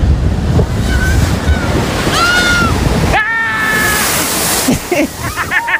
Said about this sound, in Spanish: Mira, y este es el sonido de una secuencia habitual de avistamiento de olas en Donosti.